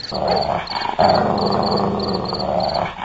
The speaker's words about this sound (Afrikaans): En agter hulle aan hardloop die kwaai hond wat elke dan en wan hap hap na Dani se baslyfie.